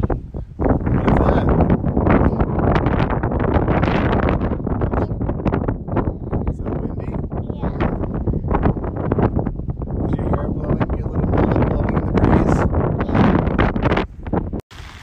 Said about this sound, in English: It is very windy.